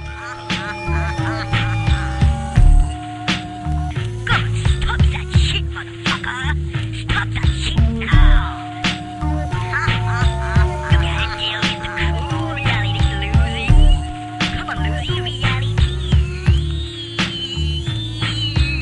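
A loud hip-hop instrumental: a steady booming beat and bass loop under a repeating melodic line that steps downward note by note in a chromatic cascade, with no vocals.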